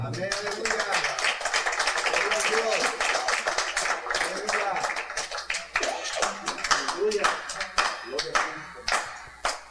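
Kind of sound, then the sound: crowd, audience applauding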